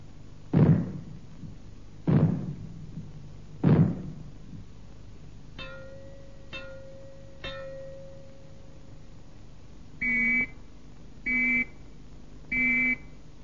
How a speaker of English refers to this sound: If the fallout warning sounds are heard, they will be like these.